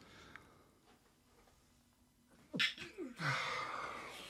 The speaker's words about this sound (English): Why do I feel like I'm going to sneeze? So I should turn my face away from the camera because I don't want to sneeze into the mic because it's going to be really loud.